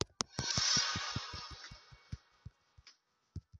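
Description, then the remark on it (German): Rapid mouse clicking done by finger in a quick, steady rhythm, about a dozen sharp clicks over a soft hissing background, then a few scattered clicks after a short pause. “Da mache ich mit meinem Finger ja mehr Klicks.”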